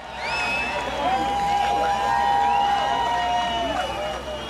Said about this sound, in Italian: Li sentite? È il novembre del 1989. Grida e urla di gioia di una folla di migliaia e migliaia di berlinesi.